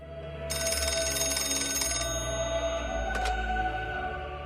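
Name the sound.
telephone ringing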